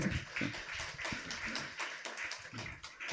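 An audience applauds steadily for about three seconds, a dense crackle of many overlapping hand claps at an even, fairly loud level with no voices.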